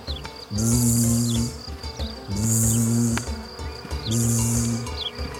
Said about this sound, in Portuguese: Eram os marimbondos ele foi se aproximando devagar até que viu um enxame voando.